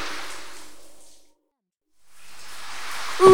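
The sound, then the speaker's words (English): Heavy rain, heard from inside a cave, pours as a dense, steady hiss, fades away into a brief silence, then swells back to a strong downpour, ending with a short bright tone. “It's raining really hard now.”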